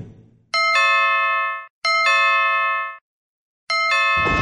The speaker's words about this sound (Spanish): Yo podía darme cuenta de lo nervioso que estaba cuando presionó el timbre de ese castillo.